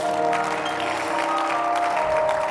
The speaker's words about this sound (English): I hear somebody clapping your hands.